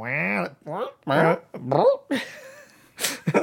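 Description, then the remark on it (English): A voice makes a rapid string of mouth-imitated fart noises: several short, pitchy, sputtering bursts followed by a longer buzzy raspberry and a final breathy blast, fairly loud. “Uh, um, all the farts you heard were genuine fart noises.”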